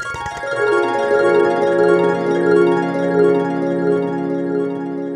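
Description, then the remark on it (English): A shimmering magical sparkle effect opens with a bright burst, then rings on as a sustained, glittering wash of bell-like tones for several seconds, fairly loud and with no voices. “It's like the little magic particles going through the air.”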